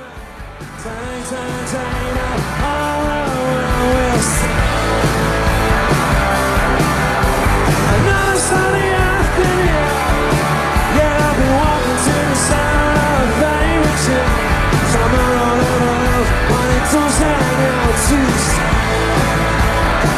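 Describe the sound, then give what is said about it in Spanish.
A live rock band plays loudly and continuously at a concert as people invade the stage, with driving guitars, crashing cymbals and shouting voices mixed into a dense, raw concert sound that swells in after a brief start. “escuchemos justo el momento en … donde no el este, bueno, sucede esto”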